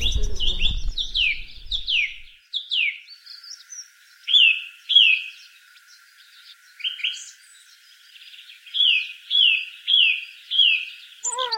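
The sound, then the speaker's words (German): A song thrush sings loud, clear phrases, many repeated two or three times, with bright whistled notes and rapid chirps following one another in a lively rhythm with brief pauses between. “Außer sie singt und verkündet den Frühling, der Vogel der Woche, die Singdrossel.”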